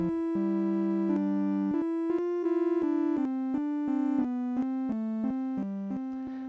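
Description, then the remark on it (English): A bright, buzzy synthesizer tone built from three oscillators playing together plays a melody of sustained notes, stepping up and down in pitch at a steady, even volume with no voices. “Let's hear now how all three oscillators sound together.”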